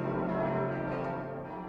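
Church bells ring out in a steady, overlapping peal, their rich metallic tones sustained and fairly loud throughout, with no voices present.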